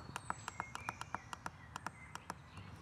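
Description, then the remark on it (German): Birds chirp in a quick, steady series of short, sharp notes, with faint thin whistles running underneath. Nobody speaks, and the calls are not loud. “Dann sind die Vögel nicht äh, so laut.”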